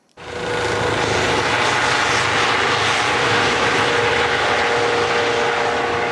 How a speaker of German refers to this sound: Der Armeehelikopter landet und bringt Hundeführerinnen und Hundeführer mit ihren Vierbeinern auf den Platz.